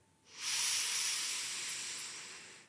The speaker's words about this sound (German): Und relaxed aus. Ähm, ja. Nach dem Spruch höre ich die Atmer auf jeden Fall anders. Wir wiederholen das Ein- und Ausatmen circa 30 Mal.